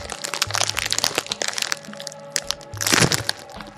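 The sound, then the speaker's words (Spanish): An aluminium foil bag of chili-and-lime Totis snacks crackles and crinkles as it is pulled open, with dense irregular crackles building to a louder tearing burst near the end. “Quería abrirlo más despacito, pero no me salió. Es que esa bolsa de aluminio no jala.”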